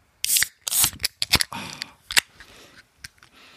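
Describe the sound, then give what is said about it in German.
A can of Passion to Peach beer, a blood-peach and passion-fruit beer, is cracked open: a few sharp metallic clicks and a brief fizzy hiss, followed by faint rustling and small taps. “Wir machen es einfach mal auf.”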